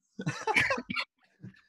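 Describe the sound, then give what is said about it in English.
A harsh, chesty cough from a person with a chest infection bursts out, rough and rattling for nearly a second, then a softer, shorter cough follows after a brief pause. “I know I'm coughing a lot.”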